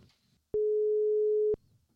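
A single telephone ringback tone while calling a guest, a museum educator: one steady, mid-pitched beep lasting about a second, loud and clean, with faint low background rumble before and after.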